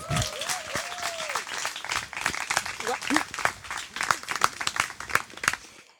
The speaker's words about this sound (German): Applaus und Bühne frei für Resi Auer.